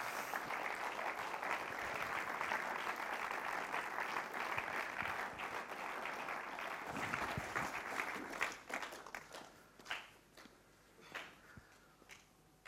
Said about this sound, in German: Und ähm, wenn ihr jetzt auf die Bühne kommt, wir machen es meistens immer so, wenn jemand auf die Bühne kommt, geben wir einfach noch einen herzlichen, warmen Applaus.